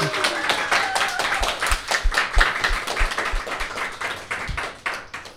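An audience claps steadily for several seconds, a dense patter of many hands with some sharper individual claps standing out, loud and sustained throughout.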